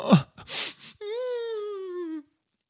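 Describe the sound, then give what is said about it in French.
A voice imitates a big yawn from hunger by a marionette: a few breathy gasps, then a long, drawn-out moaning tone that slowly sinks in pitch before stopping. Clear and fairly loud, with no other sounds. “Si papa était là, je n'en serais pas réduit à bailler, à en mourir.”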